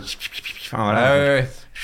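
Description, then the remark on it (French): A voice imitates a CD starting to spin in a disc alarm clock: a short scratchy rubbing noise, then a sustained humming whir that rises slightly in pitch for under a second before cutting off. “Et en fait, j'ai le souvenir que tous les matins, ce qui me réveillait, c'était pas le, la musique que j'avais choisie, c'était le bruit du hmm. disque qui commence à tourner.”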